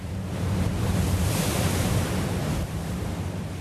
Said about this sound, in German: die Atlantikwellen auf den 42 Kilometern zwischen Madeira und Porto Santo fallen schon mal etwas größer